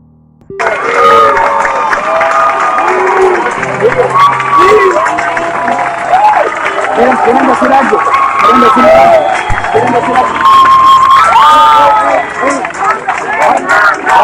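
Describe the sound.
A large protest crowd in front of a ministry cheers and shouts continuously, a dense roar of many overlapping voices that starts abruptly and stays loud and steady throughout, with individual shouts rising above the din.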